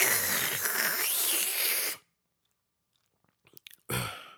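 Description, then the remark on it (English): A loud, noisy two-second gulp of a drink, a pause of silence, a few faint clicks, then a short solid knock like a cup set down. “All you heard was the swallow and the cup sit down.”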